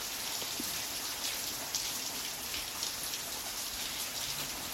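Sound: rain falling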